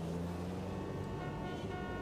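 Steady car horns blare over a dense rumble of road traffic in a traffic jam, several tones overlapping continuously and loudly.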